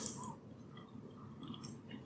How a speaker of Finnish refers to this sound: rouskutellaan maapähkinöitä.